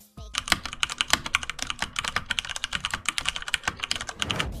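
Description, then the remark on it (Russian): Steady, fast typing on a mechanical keyboard with tactile Cherry MX Brown switches, a dense run of crisp keystroke clacks without sharp clicks, alone with no voices. “Cherry MX Brown – более универсальная модель. Тактильная, но без громкого клика, характерного для синих свечей.”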